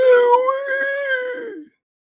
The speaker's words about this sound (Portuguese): e vocês estão primeiro escutando só o barulho do vento batendo nas nas, nas árvores, até que vocês escutam um grunhido.